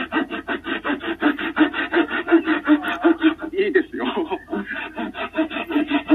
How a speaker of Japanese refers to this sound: 音でわかると思うんですけど、僕、ノコギリ下手なんですよ。で、結果結構歪んだっていう、この、あの、お恥ずかしい、お恥ずかしい音を聞かせております。しかもこれ結構時間かかるっていうね。